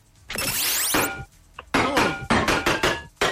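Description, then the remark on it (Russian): A plate is struck repeatedly to play the melody of a well-known song: about eight loud, ringing clinks at shifting pitches, each with a bright metallic-glassy decay, in an uneven melodic rhythm. “что за трек скрывается за данной мелодией, которая будет наигран, наигран э, тарелкой”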